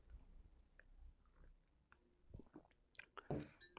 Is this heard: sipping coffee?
yes